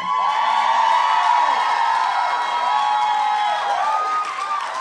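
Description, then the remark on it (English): A crowd cheers loudly and continuously, a dense wash of overlapping shouts, whoops and high-pitched screams that holds steady for the whole few seconds with no talking over it. “Do you love this episode? Cheer.”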